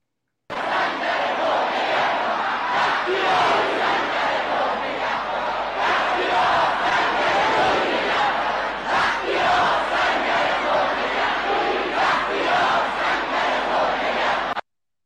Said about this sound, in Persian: شما جوانان ایران رو داشتید که فریاد میزدند هزاران هزار بختیار سنگر تو نگهدار بختیار بختیار سنگر تو نگهدار